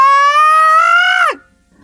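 person screaming loudly

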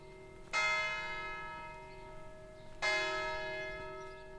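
church bells ringing

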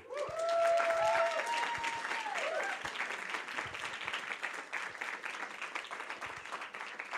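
audience applauding

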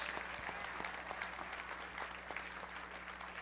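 audience applauding

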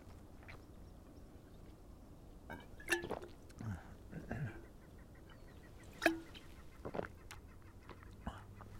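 bird calling

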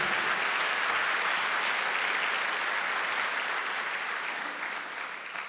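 audience applauding

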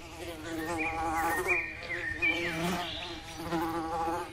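fly buzzing

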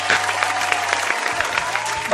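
applause

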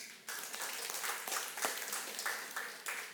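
audience clapping

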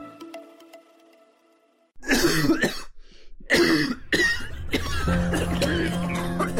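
repeated coughing

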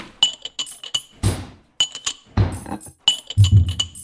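clinking glasses

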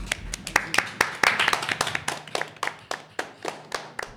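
audience round of applause

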